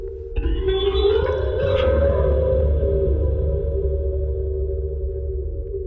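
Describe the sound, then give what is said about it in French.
An instrument played underwater and recorded with hydrophones: a handle ending in a metal disc with welded rods of different lengths, rubbed with a bow. It sustains one long, eerie, whale-like tone with shimmering overtones, slowly sliding in pitch, loud, with a low watery rumble underneath. “il enregistre le son sous l'eau avec des micros spéciaux qu'on appelle des hydrophones”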